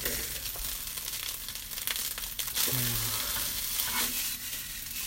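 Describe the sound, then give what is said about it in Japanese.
Fried rice with scrambled egg sizzles steadily in a frying pan that is being swirled, a dense crackling hiss with occasional scraping and stirring clatter, fairly loud throughout with no talking. “うん、フライパン回すのだけはいいんですけどね。”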